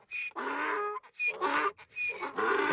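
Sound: donkey braying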